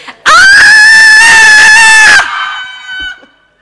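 A group of women lets out one loud, high-pitched scream together, held for about two seconds before cutting off and trailing into faint crowd murmur.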